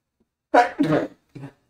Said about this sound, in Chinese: 啊，打喷嚏，不好意思